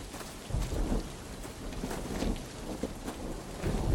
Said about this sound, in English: Pierre and Remy hurried through the mud, slipping and sliding in the ooze as the first rolling booms of thunder split the sky.